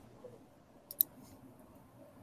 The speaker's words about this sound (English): So you, you were typing that.